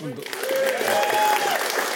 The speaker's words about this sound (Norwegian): La, la den ville applausen gi seg. Nå har det roa seg.